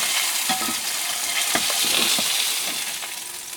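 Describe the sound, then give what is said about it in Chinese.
Salmon sizzles in a frying pan, a steady bright hiss full of fine crackles and pops, with a few soft scraping clicks from a utensil; no one speaks. “好，直接把你的鲑鱼给放上来。”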